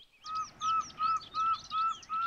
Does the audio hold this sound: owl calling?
yes